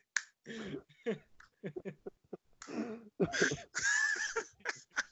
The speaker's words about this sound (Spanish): Ah, aplauso lento, aplauso para,